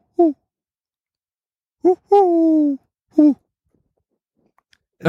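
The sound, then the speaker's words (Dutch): A person imitates a Eurasian collared dove's coo with their voice: three hooting notes, a short one, a longer drawn-out middle note, then a short final one, clear. “Eh, dat is een Turkse tortel, denk ik.”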